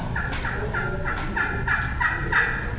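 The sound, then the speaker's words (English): A soft series of about eight turkey tree-call yelps made on a turkey call, evenly spaced and raspy, repeating steadily at moderate volume over light background noise, with no talking. “They wake up, they tree call, which is a yelp, it's soft.”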